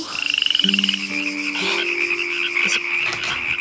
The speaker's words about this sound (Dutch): Wat is dat nou voor gekwaak? Eens kijken.